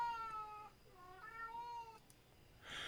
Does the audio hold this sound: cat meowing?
yes